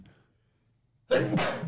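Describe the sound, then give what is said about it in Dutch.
A single sharp sneeze bursts out abruptly after a stretch of near silence, loud, with a quick two-part explosive rush of breath. “Gezondheid.”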